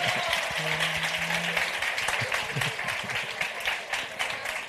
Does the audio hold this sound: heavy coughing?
no